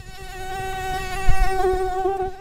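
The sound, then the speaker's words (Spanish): A mosquito whines, a thin, steady high-pitched buzz that holds for a couple of seconds and swells slightly midway, with no voices over it. “Es se, se escucha ahí un zumbido.”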